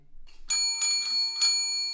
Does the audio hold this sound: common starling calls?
no